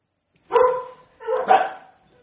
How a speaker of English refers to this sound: Do you think my dogs are going nuts? I think someone's at my front door.